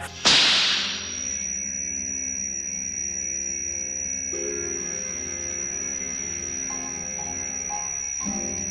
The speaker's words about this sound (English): Oh, it was a whip crack. A whip crack set it off, and then you had this steely sound.